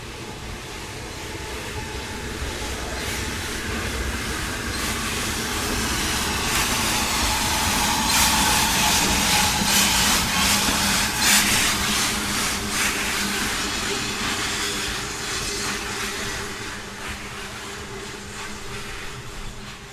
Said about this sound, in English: The signal has dropped, the locomotive is ready to go, on its way down to Alresford to pick up the first train of the day.